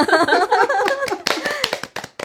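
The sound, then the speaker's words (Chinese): Brief, sparse applause: a handful of sharp, irregular hand claps, moderately loud, following a moment of voices talking at the start. “此处有掌声。”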